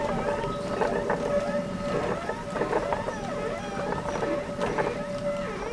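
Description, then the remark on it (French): A millstone grinding wheat grains in a watermill: a continuous rough, rumbling grind with a steady droning tone, broken by wavering creaks and squeals from the turning machinery. “Et on a enfin le bruit euh, très particulier de la meule qui moue les grains de blé.”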